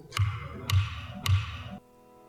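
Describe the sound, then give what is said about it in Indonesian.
Three firm wooden gavel knocks, evenly spaced about half a second apart, strike loud to close a meeting in a session room of the Indonesian House of Representatives (DPR RI), before a brief resonant tail fades to silence. “Suara ketukan palu sidang, tanda berakhirnya rapat di salah satu ruang sidang DPR RI.”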